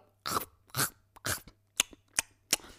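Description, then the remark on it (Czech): A voice mimics chewing and eating with a series of wet, smacking bursts, three longer ones followed by three short sharp clicks, moderately loud with no talking, imitating a young woman eating during a weekly consultation as heard through headphones. “ta slečna mi začala jíst na těch konzultacích.”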